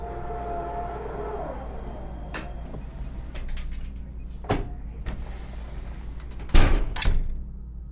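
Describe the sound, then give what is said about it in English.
A mechanical chamber door slides open as drone 33 exits its chamber, over a steady low hum: a whirring whine fades out, sharp clicks and clunks follow, and two louder hissing thuds finish near the end. “Now, drone 33, exit your chamber.”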